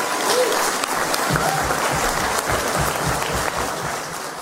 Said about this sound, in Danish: Ja, nogen øh, griner lidt i starten, og så kommer der kæmpe bifald her.